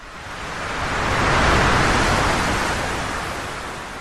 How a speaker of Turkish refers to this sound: Deniz neredeyse ayaklarımıza değiyor. Şu suların şıpırtısına hasret kalmışım.